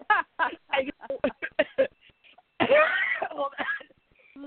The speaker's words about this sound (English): Hold on. No, the irony is that was a legitimate cough.